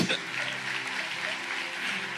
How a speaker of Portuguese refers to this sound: Você pode aplaudir o Senhor aí, gente?